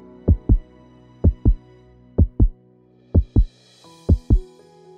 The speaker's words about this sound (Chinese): 这时候的你心脏跳得很大声